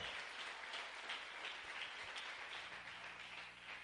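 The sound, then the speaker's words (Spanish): A crowd applauds itself for being present after a full day's event, a dense wash of many hands clapping at once with an even, sustained loudness and no voices standing out. “Yo creo que todos nos merecemos un súper, súper, súper aplauso por estar acá, por este súper compromiso.”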